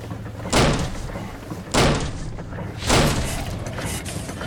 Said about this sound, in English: Kick open the door.